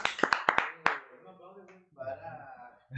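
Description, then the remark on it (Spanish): A handful of sharp, loud hand claps from a studio audience at a television program in a brief irregular burst, fading into voices talking and murmuring afterward. “¿Por qué me aplauden?”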